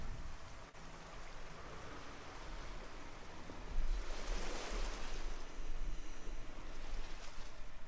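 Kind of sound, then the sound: nature, sea waves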